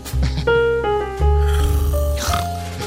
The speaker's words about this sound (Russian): Вы зевнули уже? Нет. Зря. А Это придется. Давайте, зевайте.